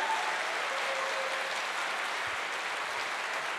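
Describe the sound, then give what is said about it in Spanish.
An audience applauds, many hands clapping in a dense, steady roar that holds at an even loudness for several seconds, with no voices rising above it. “Ahora sí, dele fuerte ese aplauso al que vive.”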